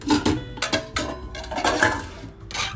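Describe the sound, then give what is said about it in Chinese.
Pots and pans being rummaged through while looking for a pot to cook milk tea and tangyuan, with a rapid series of metallic clanks and scrapes, several loud knocks in irregular bursts over a few seconds, and no talking. “好，我现在找一个锅子，要来煮奶茶和汤圆。”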